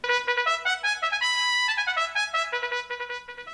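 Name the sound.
trumpet playing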